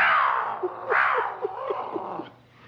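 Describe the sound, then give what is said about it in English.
A large cat yowls loudly, two long, drawn-out wailing cries that slide downward in pitch, with a faint low rumble underneath and no talking. “Why'd you get a small cat like everybody else has? No, you gotta get one bigger than the rest. Bigger noise, too.”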